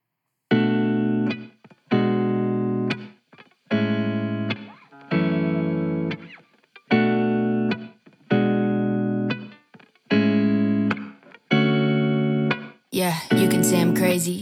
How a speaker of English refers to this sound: We're going to listen to a preview of a track she'll be releasing on August 20th.